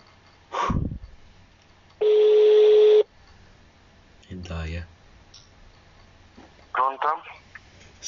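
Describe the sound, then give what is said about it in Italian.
A phone number being dialed for another call attempt: sharp clicks, then a steady electronic tone held for about a second, followed by further scattered clicks and short beeps, fairly loud. “È la segreteria telefonica. Allora, prossimo tentativo.”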